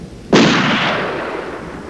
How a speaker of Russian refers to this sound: Сименс выстрелил. Пикар упал на затопленную землю.